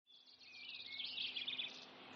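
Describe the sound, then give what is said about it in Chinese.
A small bird sings a rapid, high-pitched chirping song, a steady stream of bright twittering notes lasting about two seconds, soft and continuous with no talking. “一只小鸟啾啾的鸣唱了起来。”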